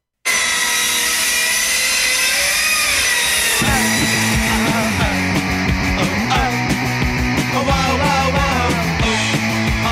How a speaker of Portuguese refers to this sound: serra de elétrica de madeira, serra circular que fica na mesa, que você passa assim.